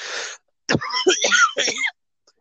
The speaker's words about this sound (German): so, ja, dieses Rauchen hatte ich auch schon, also diesen, Entschuldigung, diesen Husten hatte ich auch schon noch vor dem Rauchen.